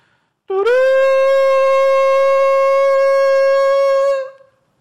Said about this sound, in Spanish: Y cuando los sacerdotes tocaron la bocina, las bocinas la séptima vez.